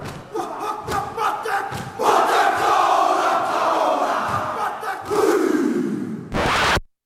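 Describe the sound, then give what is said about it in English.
A group of male voices chants and shouts forcefully in unison in Maori music played from a seven-inch EP record, with sharp rhythmic stamps or slaps. The loud, energetic cries swell and end in a brief burst of noise. “And for me, recently I bought one that's music of the Maoris.”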